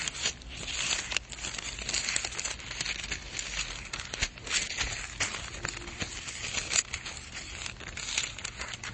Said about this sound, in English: For those of you listening to the recording, sorry about all this page turning right on the phone there.